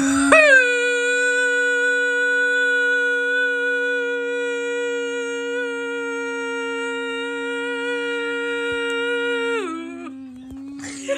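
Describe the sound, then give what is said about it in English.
People imitate a cow's moo in a contest to see who can moo the longest, one long, steady, loud vocal tone held for about nine seconds before the pitch sags and breaks off, followed by a brief quiet stretch. “So you'll both start mooing at the same time, and it's whoever can moo for the longest wins.”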